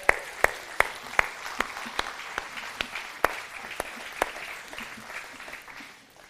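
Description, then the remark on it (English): An audience applauds with a dense wash of clapping, punctuated by about a dozen sharper, louder claps at a fairly steady rhythm, gradually fading toward the end. No one speaks. “Wow, let's give him a round of applause.”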